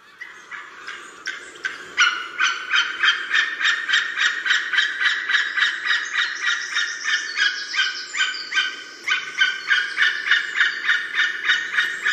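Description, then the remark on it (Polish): A flock of wild geese calling loudly in front of a microphone, frightened by one intruder that appeared among the flock, flying back and forth over a pond; their harsh, overlapping honks repeat in a fast, steady rhythm for the whole stretch with no talking. “A czemu one tak dzisiaj strasznie krzyczą przed tym naszym mikrofonem?”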